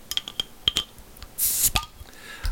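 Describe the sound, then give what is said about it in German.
A glass beer bottle being opened: a few light glassy clinks and taps, then a short sharp hiss of gas escaping, followed by one more clink. No one speaks. “Okay, na dann sage ich mal Prost und mache nebenbei mal schnell meines auf.”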